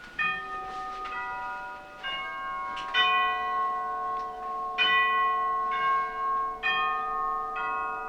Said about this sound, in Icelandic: Við bregðum okkur nú á bæ og höldum austur í bæ og dýrabjallan sem að hengir hér er upprunalegð í húsinu.